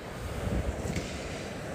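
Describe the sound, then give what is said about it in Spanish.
Rough sea surging onto a pebble shore, a steady, dense roar with brief swells of louder wash and some wind buffeting the microphone; no voices. “Es un mar impetuoso, rompiendo contra los cantos rodados”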